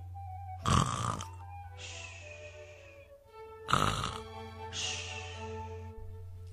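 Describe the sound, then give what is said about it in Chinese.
Two loud snoring cycles, each a harsh rattling snore on the inhale followed by a softer airy whistle on the exhale, repeating in a slow, steady rhythm: a tired little monkey asleep on a big tree branch. “四处躲雨的小猴子疲惫不堪地趴在一棵大树枝上，它实在是太累了，不一会儿就睡着了。”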